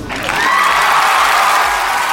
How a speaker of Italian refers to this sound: Prima di tutto però ha messo gli applausi, eh?